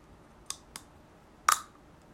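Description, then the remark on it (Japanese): Three small clicks with no talking: two light snaps in quick succession, then a sharper, brighter click a moment later, as a plastic dental aligner made to fit the wearer's teeth is pressed onto the lower teeth, front teeth first, then pushed toward the back teeth with the fingers. “今カチッって音聞こえましたこれもう本当にねこう自分の歯型に合わせて作られているのでカチッってね綺麗にはまるんですよ。”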